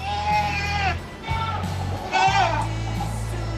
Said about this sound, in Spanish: No, son una, eh, será una cabra que anda dando